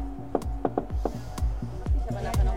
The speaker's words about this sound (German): So, dann klopfen wir mal die Tür.